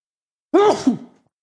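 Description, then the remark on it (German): A single loud sneeze, a sudden voiced burst with a hissy, breathy edge and a short second push, lasting about half a second before trailing off into silence. No talking. “Sorry. Gesundheit. Danke.”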